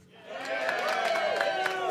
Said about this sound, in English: That's, uh, that's the point where you applaud.